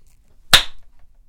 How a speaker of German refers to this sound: Ja, das habe ich auch gehört, dass ich geklatscht habe.